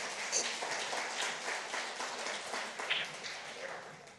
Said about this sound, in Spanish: Venga, denle un aplauso Señor, por favor. Fuerte, fuerte, fuerte, iglesia.